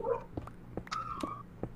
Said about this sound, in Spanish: Uy, los perros.